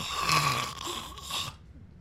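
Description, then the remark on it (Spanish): A voice imitates snoring with a raspy, rattling rasp lasting about a second and a half, moderately loud, then cuts off into quiet. “Que el celular me escuchó roncar.”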